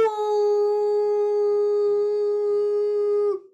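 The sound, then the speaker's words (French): A single long, steady shofar (ram's horn) blast sounds out loud, holding one bright, buzzy note for about three seconds before it cuts off with a slight wobble at the end. “voyez, ça ne s'arrête pas. C'est ça le son du chauffard.”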